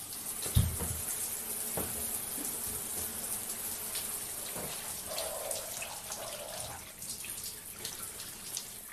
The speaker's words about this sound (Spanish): Me metí al baño y tomé una ducha rápida.